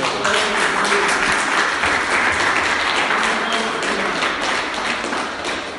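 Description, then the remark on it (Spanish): An audience at a church service applauds the Lord steadily for several seconds, a dense wash of many hands clapping at an even, sustained loudness that eases slightly toward the end. “Den un aplauso al Señor por eso.”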